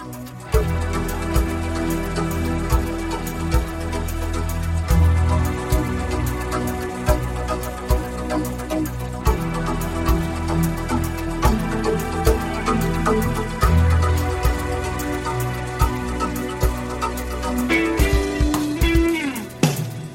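A full-band song, a promotional single, plays loud, with steady beats and dense sustained instruments running throughout, and a brief shift in texture near the end.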